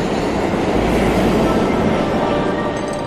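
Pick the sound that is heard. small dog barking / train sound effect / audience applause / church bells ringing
train sound effect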